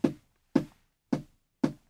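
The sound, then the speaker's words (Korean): Four dull, thudding knocks in an even, steady rhythm, a foley demonstration of the sound of a person walking made by knocking. Each hit is short with a low, woody body and quick decay, with silence between. “사람 걷는 소리”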